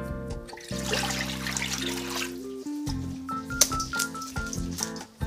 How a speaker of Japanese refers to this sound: それからニラを切るんですがニラをまず洗っていきましょうすごくね春のニラはすごくこうみずみずしくて柔らかい感じですね。